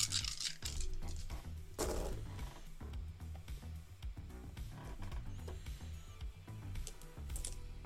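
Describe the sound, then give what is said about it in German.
Dice clatter and rattle as they are rolled by hand across a hard tabletop, a busy run of sharp little clicks and taps that keeps going for several seconds with no voices. “Ich würfel heute mal wieder ähm, physisch.”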